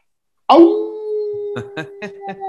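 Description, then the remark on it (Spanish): A loud howl starts abruptly and holds one steady, drawn-out pitch for about two seconds, while short bursts of other voices break in over its second half. “Entonces, pues, aúllale.”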